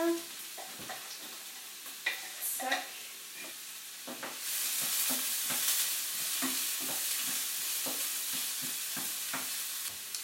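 Garlic frying in a pan: a few seconds of clattering and stirring, then a loud, steady sizzle takes over and continues to the end, with occasional knocks of a utensil.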